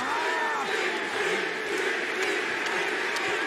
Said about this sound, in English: And listen to this crowd, it has come unglued. Oh, the icon, Sting.